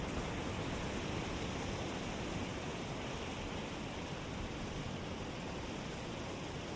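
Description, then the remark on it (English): Ocean waves wash steadily onto a beach, a continuous broad hiss of surf with little rise and fall, moderately loud and with no voices. “Sleep Meditation - Waves On A Beach”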